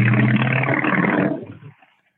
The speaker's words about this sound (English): There's a motorcycle. I heard a motorcycle.